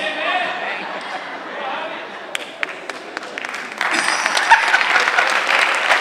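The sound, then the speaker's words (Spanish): An audience breaks into applause, a few scattered claps first, then building into dense, steady clapping that grows louder and fills the rest of the moment, with faint voices murmuring underneath at the start. “No sé por qué aplauden por eso.”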